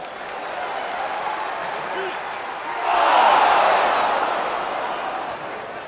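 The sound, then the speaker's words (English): A hockey arena crowd roars steadily, then swells into a loud, excited reaction for about two seconds after a check before easing back to a dense, noisy murmur. “And you know, anyone takes a really nice check, you get all these big, awesome, just like, oh, you get these big reacts that I can use in just all these different contexts.”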